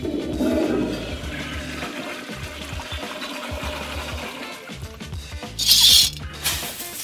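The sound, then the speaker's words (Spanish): A toilet flushes with a loud rushing swirl of water that gurgles and churns for several seconds, followed by a brief hiss of refilling near the end, with no talking. “Hora de ir al baño. ¡Ay, quedó medio sucio! Mm, déjalo otra vez.”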